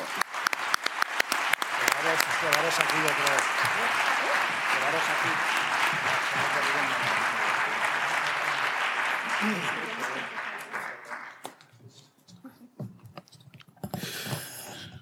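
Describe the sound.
Sustained audience applause at an award ceremony as the prize winner collects her award, lasting about eleven seconds, with bits of voices and cheering mixed in, before fading to near silence and a brief final burst of noise.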